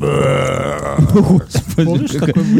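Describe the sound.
A long, deliberate burp produced by swallowing air drones steadily for about a second, loud, and then a person starts talking.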